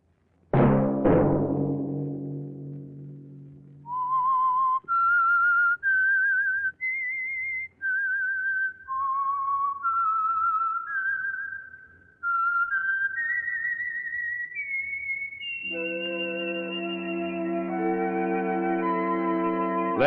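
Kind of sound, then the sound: signal or alarm, whistled theme melody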